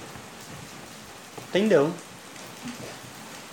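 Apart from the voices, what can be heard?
rain falling outside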